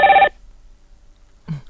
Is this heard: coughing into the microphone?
no